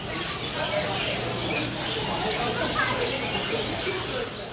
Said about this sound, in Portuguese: Ainda nem são 10 da manhã e o movimento é intenso. O som dos pássaros se misturam às vozes de vendedores e clientes negociando os produtos.